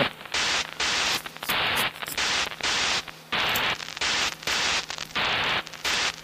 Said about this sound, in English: Using static as the beginning. Okay. That's pretty cool, actually.